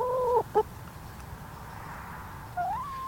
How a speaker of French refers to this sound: Les poules nous réveillent.